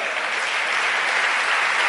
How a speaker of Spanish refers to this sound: ¿Cuántos vinieron al Señor ya? Le damos un aplauso a ese Señor.